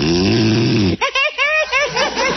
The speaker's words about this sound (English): …, you said you wouldn't snore.